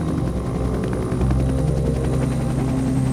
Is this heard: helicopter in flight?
yes